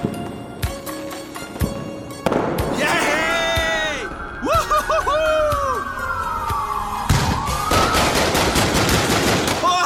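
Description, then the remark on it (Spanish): Bursts of machine gun fire crackle in rapid, irregular, loud volleys, while a wailing, whooping siren rises and falls through the middle of the scene. “Pero si esos no son cohetes. Lo que quieren es derribarnos.”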